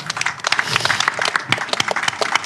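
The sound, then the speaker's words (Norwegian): An audience applauds all three festivals with dense, steady clapping throughout, a loud patter of many hands with sharp individual claps standing out from the crowd's wash. “Eh, stor applaus til alle.”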